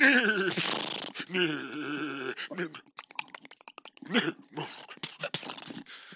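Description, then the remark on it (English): A person imitates a horse to introduce a segment about Stampede Stables: a loud, wavering whinny-like cry for about two seconds, followed by a quick series of sharp clicking sounds like clopping hooves. “She's never seen me do the horse noises before”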